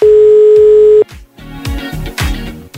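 A single steady telephone ringback tone, on a radio host's outgoing call to a listener, sounds loud and clear for about a second, then stops as a busier, louder mix of music-like sound takes over.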